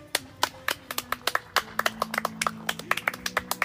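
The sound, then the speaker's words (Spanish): An audience claps to welcome a guest, in a quick, uneven patter of sharp, crisp hand claps that keeps going for several seconds without a break, with a low steady hum underneath and no talking. “tienes que aplaudir, gracias.”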